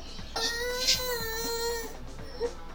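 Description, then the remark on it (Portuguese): A person fakes crying with an exaggerated, wavering sobbing wail that holds for over a second, then trails into a couple of short whimpering sniffles, clear. “Com esse choro em Lá menor com sétima, a gente vai encerrar agora aqui o, o podcast.”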